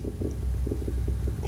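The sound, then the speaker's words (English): A low gurgling stomach rumble with bubbly, uneven pulses rolling on for over a second after the speaker hits their stomach, no voices over it. “Is that your stomach? Did you shit yourself? That's my stomach, dude.”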